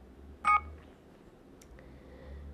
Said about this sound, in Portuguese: Ei, é meu alarme.